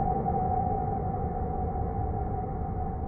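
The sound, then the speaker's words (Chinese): Planetary magnetosphere radio emissions rendered as sound: a dense, rumbling hiss that never lets up, with a steady, eerie humming tone sustained over it for the whole few seconds. No voices. “那这是因为每个星体的磁层和磁场都不一样，导致每个星球的曲风也大相径庭。”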